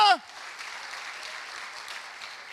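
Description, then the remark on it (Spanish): A church audience applauds God in a steady, even wash of many clapping hands that carries on for a couple of seconds, opening with a brief falling vocal sound. “Dale un aplauso a Dios.”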